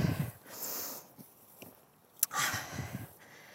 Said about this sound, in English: Sorry about the puffing and panting, but the weight vest is clearly working.